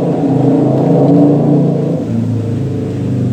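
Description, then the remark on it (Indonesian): A loud motorcycle engine revs and drones steadily for a few seconds, its low, rough tone rising slightly and then settling into a constant rumble. No one speaks. “berisik banget motornya bang”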